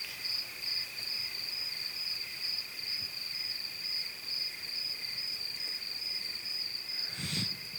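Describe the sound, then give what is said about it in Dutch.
Crickets chirp steadily at night at Devil's Peak in the wilderness, where the recordist is camping out in a sleeping bag, in a continuous, high-pitched trill with no pauses, with a brief rustle near the end and no voices. “Dit is het geluid van krikkels.”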